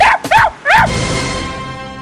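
A dog gives three quick, high-pitched yipping barks in a tight burst, followed by a lingering hum of background noise.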